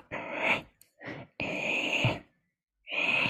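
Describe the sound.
A person imitates a gull's call with a series of four strained, nasal squawks, the longer ones drawn out and rising, fairly loud with short pauses between.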